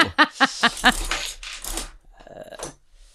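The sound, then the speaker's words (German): A few short vocal bursts, then a one-euro coin drops into a machine slot with a metallic clatter, followed by rattling as it rolls and settles inside. “Du musst einmal kurz, glaube ich, drehen, damit der Schacht offen ist, genau.”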